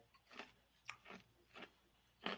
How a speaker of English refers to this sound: Finished chewing that ice.